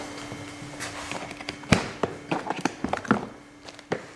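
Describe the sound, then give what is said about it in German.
A black, heavy plastic case being opened: one loud snap, then a run of sharp, irregular clicks and knocks from latches and lid over a faint, steady low hum, with no talking. “Ein schwarzer, schwerer Plastikkoffer. Was drin ist, hört ihr gleich.”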